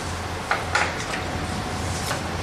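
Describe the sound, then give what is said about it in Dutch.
A key turns with a couple of short metallic clicks, then a small metal door creaks and clunks open, as a switched-off collection system is opened to see what it has caught; the door also serves as its collecting surface. Fairly quiet, over a steady low machine hum, with no talking. “Dus ik draai het sleuteltje om.”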